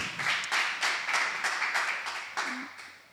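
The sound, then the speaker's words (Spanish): A crowd claps together in a steady, rhythmic applause for God, loud and sustained for a few seconds, with a faint voice briefly audible underneath. “Uh, un aplauso fuerte a Dios ahí.”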